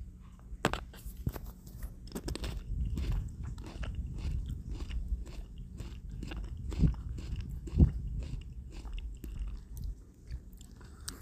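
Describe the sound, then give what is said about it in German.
Crunchy biting and chewing of a small snack tomato, with a steady run of sharp cracks and one especially loud snap partway through; no voices. “weiß nicht, ob er es gehört hat, aber es hat richtig krass geknackt so.”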